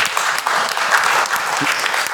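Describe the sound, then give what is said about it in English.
A steady burst of applause from an audience, dense overlapping clapping that holds at an even, fairly loud level for a couple of seconds with no voices standing out. “I think that's worth applauding.”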